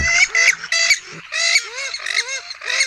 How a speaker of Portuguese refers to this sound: Em agosto, gritam o caimão e o mergulhão e as rãs nunca se calam.